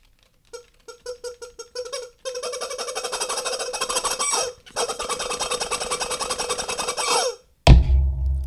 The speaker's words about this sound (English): I didn't know you had the movie prop. I know it's amazing, isn't it? Literally, and I'm not kidding. It was a rubber fucking chicken.